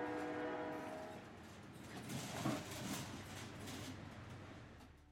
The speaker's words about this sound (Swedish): han vaknade inte förrän han var på väg till stan i godsvagnen på tåget och skakade fram och tillbaka bland de andra paketen